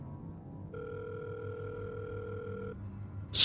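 A steady two-tone phone ringback hums for about two seconds over a low background drone as someone calls their father from inside a car, then cuts off, followed by a sudden loud burst of noise at the end.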